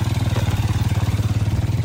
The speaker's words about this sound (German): Vereinzelt begegnet mir auf dem rot-goldenen sandigen Boden ein Traktor.